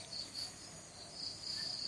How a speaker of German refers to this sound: dich tragen von den Hintergrundgeräuschen, von den Vögeln, den Grillen, den Zirpen und was dann auch so alles